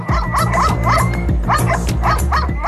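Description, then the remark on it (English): Many dogs bark and yip at once in a dense, continuous chorus, with some higher whining cries mixed in, loud, over a low steady background hum, at an NSPCA shelter where police left 214 dogs. “So, in September, the police dumped 214 dogs at the NSPCA.”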